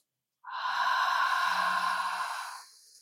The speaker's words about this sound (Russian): Сделайте глубокий вдох через нос и задержку дыхания. Вдох. Выдох через приоткрытый рот.